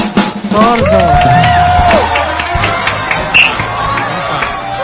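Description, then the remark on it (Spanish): An audience applauds and cheers steadily for about five seconds for a guest who has just sung, a dense wash of clapping with shouted voices and high whoops rising above it, staying loud throughout. “Este aplauso es para ti.”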